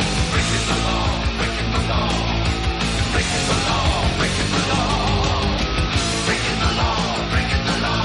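A loud heavy metal song plays continuously, with dense distorted guitars and pounding drums filling the whole stretch. It is close and steady, and no one talks over it.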